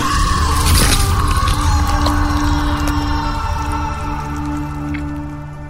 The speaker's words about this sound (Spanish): Ese grito fue desgarrador. El doctor Farca, Ramiro y yo lo escuchamos desde las esclusas y corrimos para ver lo que pasaba.